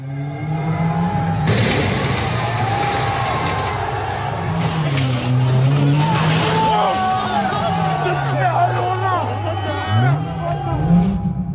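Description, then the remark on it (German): Chaotic street riots in France, with thousands of people protesting: a dense roar of crowd noise and shouting, with car engines revving and whining, a broad wash of clatter and hiss running steadily throughout. “Das, was wir da gerade gehört haben, sind die Krawalle in Frankreich.”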